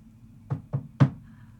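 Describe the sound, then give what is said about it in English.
Three firm knocks on a wooden door, evenly spaced with the last one loudest, against a quiet background with faint hum. “come to, and you're sitting in like your living room in Softville, uh, and uh, there's a knock on the door.”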